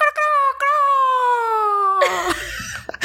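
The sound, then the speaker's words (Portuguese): A person imitates a rooster's crow with one long, strained falsetto call that holds steady and then slides down, breaking into a rough, noisy finish. It is loud. “E daí, toda vez que tem um galo cantando na vizinhança, ele fala:”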